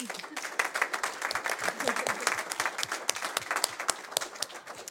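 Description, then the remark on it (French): An audience applauds two women speakers once more at the end of a talk, steadily for several seconds, a dense patter of many hands clapping at once with sharp, bright claps scattered throughout at an even, lively level. “On peut les applaudir à nouveau.”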